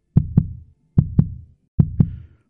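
A heavy, low heartbeat thumps in three evenly spaced double beats, each lub-dub pair booming and resonant with a short decay, and no voices present.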